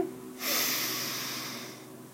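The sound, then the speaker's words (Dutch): A long, deep breath drawn in through the nose during a seated breathing exercise, an airy rushing hiss that starts abruptly and slowly fades over about a second and a half, with no talking. “Dus ik ga gewoon door mijn neus in.”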